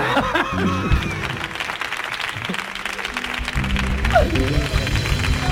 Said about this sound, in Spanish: Fuerte el aplauso para el elenco de actores.